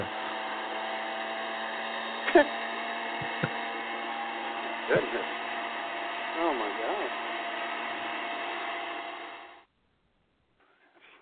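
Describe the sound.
A leaf blower drones loudly and steadily for about nine seconds before cutting out abruptly, with a couple of short exclamations from a voice heard over the motor's whine; someone is using it outside a window early in the morning at 7:30 a.m.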